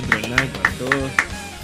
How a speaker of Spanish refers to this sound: Así que muchas gracias, Un aplauso para el encuentro online. un aplauso, para, todos.